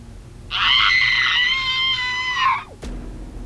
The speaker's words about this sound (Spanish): Un grito estremecedor se escuchó en la grabadora.